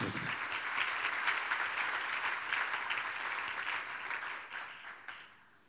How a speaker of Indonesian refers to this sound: Berikan tepuk tangan bagi Tuhan Yesus.